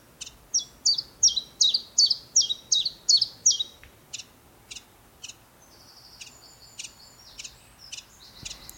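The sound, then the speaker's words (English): A chiffchaff song played from a sound file: a run of bright, evenly repeated chirping notes, then thinner, more scattered calls, heard clearly on its own with no talking. “But if you just heard a chiff chaff”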